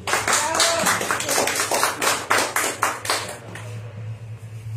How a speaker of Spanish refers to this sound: Reciban un fuerte aplauso